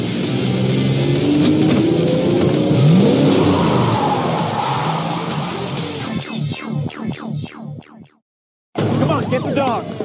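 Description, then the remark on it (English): A car engine roars and accelerates hard during a police car chase, its pitch climbing, then pulses through rapid revs before a brief cutout and the engine noise resumes. “I don't think you're grasping the concept of the car chase here.”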